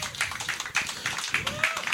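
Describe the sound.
An audience applauds steadily for two seconds, a dense, even wash of many hands clapping at once, with a few cheers and voices mixed into the crowd noise.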